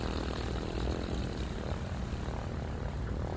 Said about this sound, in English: The two planes take off. From everybody watching, they take off much faster than they're supposed to and you see someone running out onto the tarmac to try and stop them from taking off, but they're much too slow.